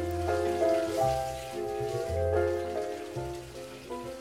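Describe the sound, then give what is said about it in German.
Fountain water splashes and patters steadily for a few seconds, continuous, with soft sustained musical tones layered over it and no talking. “Das Wasser weiß es. Hör ihm zu.”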